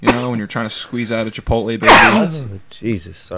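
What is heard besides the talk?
sneeze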